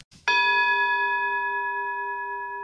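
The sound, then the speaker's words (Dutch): A single gong strike, signaling that time is up, rings out loud and clear, its bright metallic tone sustaining and slowly fading over a couple of seconds with no talking. “Daar was de gong.”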